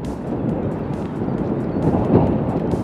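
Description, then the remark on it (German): Strong storm wind blows steadily over the Schalke grounds on a Sunday, a dense low roar buffeting with gusts swelling slightly louder near the end. No voices are heard. “Am Sonntag zieht ein kleiner Sturm über das Schalke-Gelände und liefert die perfekte Metapher”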